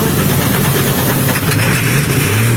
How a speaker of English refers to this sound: Listen to this the the turbochargers sucking in that ether on uh, on Extreme Pleasure. It's pretty fun.